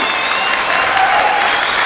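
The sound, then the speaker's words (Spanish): An audience in Panama applauds steadily, a dense wash of many hands clapping at a constant, fairly loud level with no clear pauses or individual claps standing out. “Panamá ese no es el aplauso que te mereces cuando te estamos hablando de tus sueños.”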